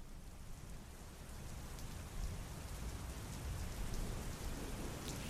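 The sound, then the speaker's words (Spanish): Steady rain pours down at night and patters against a window, a dense continuous hiss with scattered drop taps and a low rumbling undertone, holding at an even, moderate loudness with no voices. “No podía dormir, mucho menos con la lluvia que caía y golpeaba mi ventana.”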